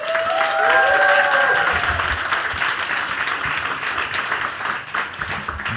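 A live audience claps for the three people on stage in a dense, steady wash of applause that stays loud for several seconds, with a few shrill whistles rising above the clapping early on.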